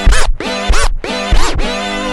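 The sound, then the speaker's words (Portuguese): Loud DJ turntable scratching in quick back-and-forth bursts, three rhythmic sweeps with sustained tones between them, with no voices, played during the Disco Nights show. “Vamos lá, aumentando o som então, olha o scratch aí, ó.”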